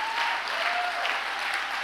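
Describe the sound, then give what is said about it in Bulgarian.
An audience applauds steadily, a dense wash of many hands clapping at an even, moderate loudness throughout, with no voices standing out above it. “О, хайде, ако ръкопляскаш, ръкопляскай, като че наистина вярваш.”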